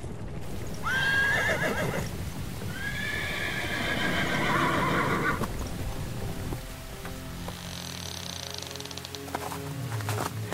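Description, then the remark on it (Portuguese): A horse-drawn carriage rolls along through the night with steady clip-clopping hooves, while a horse gives two long, high whinnies early on; the rumble of the wheels and hoofbeats continues loudly throughout. “A carruagem seguiu noite adentro, parando somente quando o sol deu as caras no horizonte.”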